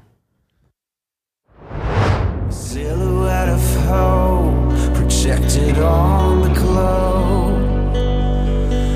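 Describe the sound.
After a brief near-silence, a rising whoosh swells into a loud, full pop song with a sung lead vocal over steady bass and layered instruments, playing continuously to the end.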